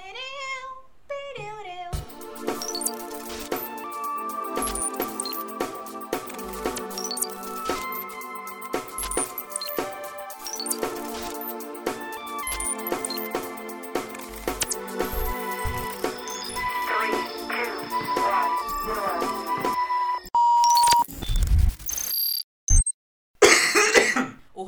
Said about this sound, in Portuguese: E aí, vinhetinha?